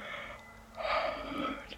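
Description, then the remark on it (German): A single drawn-out breathy yawn, swelling after a quiet inhale and trailing off into a soft sigh, with no talking. “dann komme ich automatisch ins Gähnen.”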